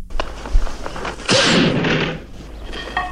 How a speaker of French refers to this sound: Un coup de feu oui.